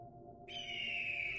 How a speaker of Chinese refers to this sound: 啾的一声鸟鸣，一只金鹰划过夜空